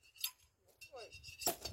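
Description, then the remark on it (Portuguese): A sparkling wine bottle is sabered open with a blade, the pressure forcing the cork out: two sharp, bright glassy cracks about a second apart, fairly loud, with faint voices murmuring in between. “quando a gente estoura uma garrafa de espumante, né? Com, uma, com um sabre, com, com uma faca”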